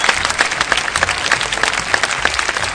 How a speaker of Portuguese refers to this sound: Palmas pro grupo, pro primeiro ato.